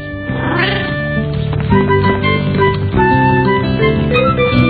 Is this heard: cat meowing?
yes